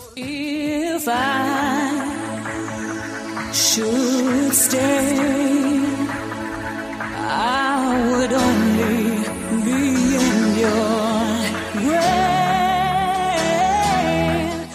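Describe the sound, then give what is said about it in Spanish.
A British female singer sings a 1993 cover version of a song over a full, dense band arrangement, her voice upfront and held notes wavering with vibrato, music playing loudly and continuously throughout. “bueno, cerramos ya, si te parece, con la última de las versiones, la que nos ofrece la cantante británica”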